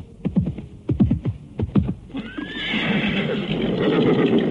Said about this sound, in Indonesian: Kuda itu terus berjalan dengan gegap di atas rumput.